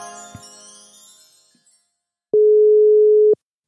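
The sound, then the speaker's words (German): A fading, bell-like electronic jingle, then a pause and one steady, loud telephone tone lasting about a second, like a ringback beep, as a phone call is placed to a guest. No voices. “Die müssen wir jetzt anrufen. Dazu habe ich einen ganz, ganz tollen Sound, der da passt.”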